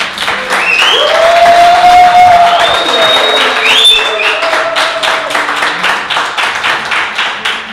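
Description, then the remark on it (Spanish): A touring group of friends claps loudly in dense, rapid applause, with whoops and a rising whistle-like cheer early on; the clapping keeps going steadily and thins out a little toward the end. “Estos aplauden más fuerte que otros grupos, ¿verdad? tienen más energía.”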